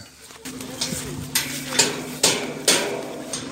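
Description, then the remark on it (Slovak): Workers hammering outdoors while building a stage at Domaša in eastern Slovakia on a sunny, very warm day: four or five sharp metallic strikes at a steady, unhurried pace, over a faint background hum and ambient outdoor noise. “Robotníci tu stávajú pódium vraj pre arcibiskupa Bobera, ktorý má prísť posvetiť výletnú loď po domaši.”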